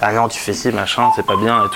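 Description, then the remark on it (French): A restaurant's telephone rings with a steady electronic tone in the second half, early on a Thursday morning in July, sitting under a person talking rapidly. “Ça, c'est le téléphone du resto.”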